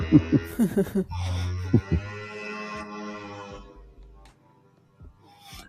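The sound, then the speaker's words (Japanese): A motorcycle or similar vehicle rumbles past, a loud drone with a shifting pitch that swells early, then fades steadily over several seconds. “これはなんかあれですかバイクかなんかが通っていく音ですが、今の音は。”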